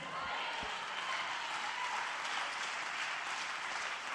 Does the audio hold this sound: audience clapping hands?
yes